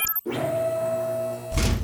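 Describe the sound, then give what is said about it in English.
Doors open with a steady mechanical whir and hum, loud, that ends in a heavy clunk as they finish moving. No one speaks. “Now, open the doors, please.”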